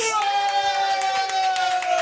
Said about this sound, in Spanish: Pues, ganó Gremlins. Suelta aplauso para Gremlins.